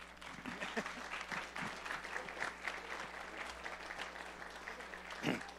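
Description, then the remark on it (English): An audience applauds steadily for several seconds to welcome a team back from a short-term mission trip, a dense, continuous patter of many hands clapping at moderate volume, with a slightly louder burst near the end. “Welcome them by clapping.”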